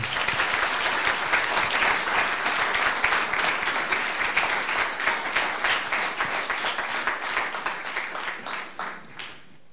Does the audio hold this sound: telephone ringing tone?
no